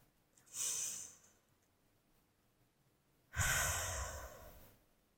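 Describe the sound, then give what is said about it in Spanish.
Two slow, deep breaths with no talking during a guided breathing practice: a soft airy inhale starting around half a second, a pause, then a louder, fuller exhale near three and a half seconds. “Así que relaja los hombritos. Eh, vamos a respirar.”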